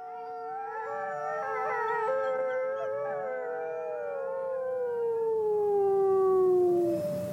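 Several wolves howl together in long, wavering, overlapping tones, one voice sliding slowly downward and fading out near the end. No one speaks.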